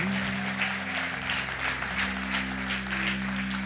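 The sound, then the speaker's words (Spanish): A church audience applauds the Lord loudly and steadily throughout, a dense wash of clapping, while low sustained keyboard-like tones hum underneath. “¿Cuántos dan un fuerte aplauso al Señor por esto?”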